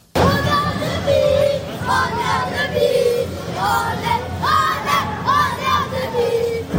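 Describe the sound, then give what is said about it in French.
About 1,000 FC Annecy supporters at the Vélodrome roar and cheer continuously at the final whistle of a draw in the evening, with overlapping shouts and chant-like voices rising and falling in loud, sustained waves. “Au coup de sifflet final hier soir, ils ont laissé exploser leur joie.”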